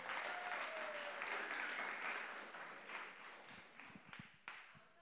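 An audience applauds in a dense, steady wash of clapping that gradually thins out, leaving a few scattered individual claps near the end.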